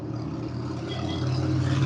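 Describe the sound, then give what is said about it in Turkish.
A steady car engine rumble with a broad hiss above it, growing slightly louder and deeper over a couple of seconds, with no voices. “Ee, sen arabaya binme ya dur podcast yapıyoruz.”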